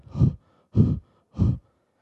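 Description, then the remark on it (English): A voice imitates heavy panting from running down a road: three loud, breathy huffs in a steady rhythm, each about a third of a second long, with short silent gaps between them. “And I'm panting.”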